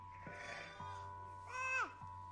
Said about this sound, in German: Das Schaf kommt wieder. Weiß, sanft, wollicht. Es blökt und nun erkennt sie's wieder.